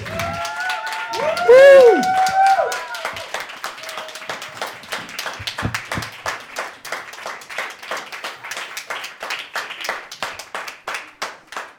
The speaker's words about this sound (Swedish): Så ja, Snälla publik, får vi be om en applåd för alla fantastiska människor.